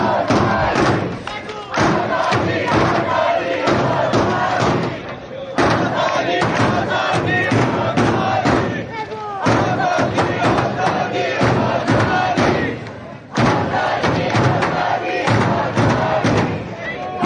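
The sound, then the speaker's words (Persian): A large street crowd at an anti-government protest on Ferdows Boulevard chants slogans calling for the overthrow of the clerical regime in loud unison, voices rising together in repeated bursts with short breaks between, punctuated by rhythmic drum thumps and claps. “صدای تبل سرنگونی حکومت آخوندی در بولوار فردوس”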